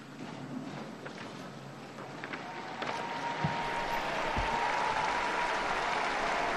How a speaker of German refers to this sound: Nach dem Mittagsgebet brandet Applaus auf auf dem Petersplatz auch zur Ermutigung des Papstes.